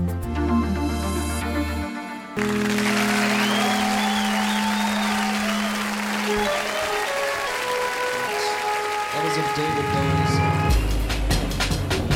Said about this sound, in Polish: Fajne są te wersje koncertowe, bo tak zawsze brawa biją i zawsze można sobie pomyśleć, że to dla nas.